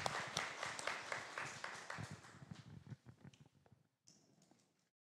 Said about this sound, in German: Applaus für euch.